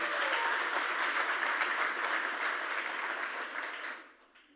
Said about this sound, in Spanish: Gloria a Dios. Denles aplauso al Señor fuerte.